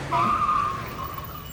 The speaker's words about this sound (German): Als ich die Hand raushalte, bremst in derselben Sekunde ein Auto.